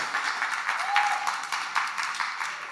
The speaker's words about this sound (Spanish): No, porque vamos un fuerte aplauso para los muchachos que han estado dando la serie.